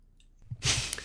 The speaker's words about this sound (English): But um, anyway, let me do another cough quickly.